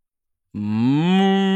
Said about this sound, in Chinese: 嗯，水牛狂吼了一声，我赶紧堵上耳朵，感觉周围的地面都在颤抖，半山腰的积雪都扑簌扑簌落了下来。